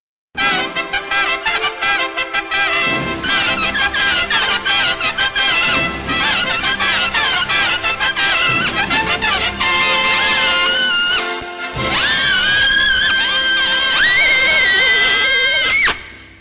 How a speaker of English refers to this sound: as far as I could tell, was taking pop songs and dubbing like incredibly high pitched trumpet lines over the melody.